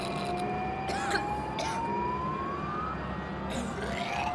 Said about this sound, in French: Une minute plus tard, le métro s'arrête à quai le conducteur sonne l'alarme.